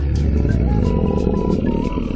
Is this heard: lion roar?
yes